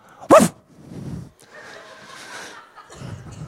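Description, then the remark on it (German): A person who has crept up behind someone as a prank imitates a dog with one sudden, loud, sharp bark right beside them, followed by quieter murmuring and soft voices for the rest of the moment. “du direkt neben dir so ein Köter bellt. Also, es war nur der …, der kann echt gut bellen”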